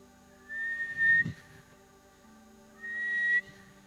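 Two separate blasts from a whistle, each under a second long, with a steady, shrill high pitch and a short pause between them. No one speaks.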